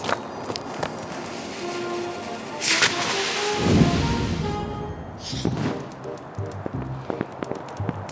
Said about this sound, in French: t'as pas entendu quelque chose Ouais, je crois que les feux d'artifice ont été lancés. Qu'est-ce que tu vois Alors, euh, bleu, étoile, rouge saule pleureur et bouquet final.